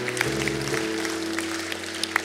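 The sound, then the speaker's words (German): A church audience claps steadily to welcome new members, the applause a dense wash of hand claps over a low sustained hum, with no one speaking. “Komm, lass uns doch unseren neuen Mitgliedern nochmal einen herzlichen Applaus geben.”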